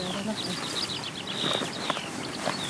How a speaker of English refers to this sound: It's uh, these bees buzzing around. That's a beautiful thing.